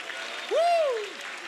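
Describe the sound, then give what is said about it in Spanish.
A church audience applauds loudly to celebrate God's victory, a dense steady patter of clapping throughout, while a single voice calls out a long rising-then-falling note over it partway through. “aplauda fuerte, fuerte su victoria.”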